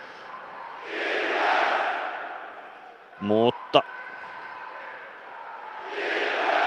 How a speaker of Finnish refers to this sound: Jatketaan lähetystä eteenpäin Ilves-kannattajien tunnelmoidessa. Kolme minuuttia Ilves kannattaa edelleen meteliä pitää Kuparisaaren päädyssä